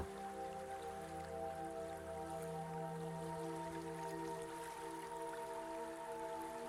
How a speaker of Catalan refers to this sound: Ara, prova de compassar la respiració amb el fluir de l'aigua del riu que tens davant.